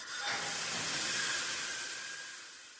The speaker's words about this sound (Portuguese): você ativa a plataforma e a porta se abre, fazendo aquele barulho peculiar.